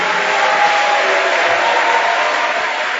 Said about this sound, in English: Put your hands together for this great man. So anointed.